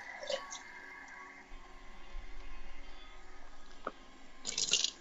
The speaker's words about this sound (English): I'm getting some water.